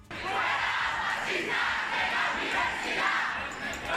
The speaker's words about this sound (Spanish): Gritos que han encontrado su respuesta en otro grupo de estudiantes que defendía a la presidenta madrileña